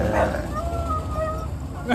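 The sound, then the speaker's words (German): Dogs play-fighting, with a burst of yips at the start, then thin, high whimpering tones drawn out over a low rumble, ending in a sharp yelp. “Wie eine andere heult.”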